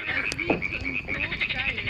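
animal, frogs croaking mating calls

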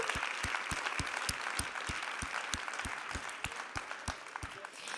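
crowd, audience applause

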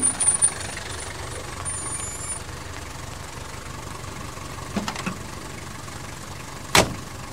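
vehicle, car engine

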